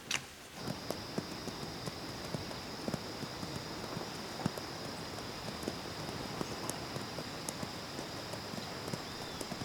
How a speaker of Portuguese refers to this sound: Numa área de vegetação seca, Joaquim e o poeta estão montados em cavalos brancos e seguem na direção de uma casa isolada.